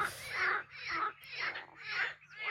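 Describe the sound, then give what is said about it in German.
Frogs croak in a steady series of about five harsh, raspy calls, each swelling and fading in a regular rhythm, with a faint low hum underneath and no voices. “Jetzt habt ihr die Frösche wieder, ne?”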